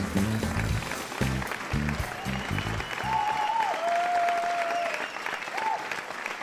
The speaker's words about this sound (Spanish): Muchas gracias, muchas gracias a nuestro público virtual que nos aplaude cada programa.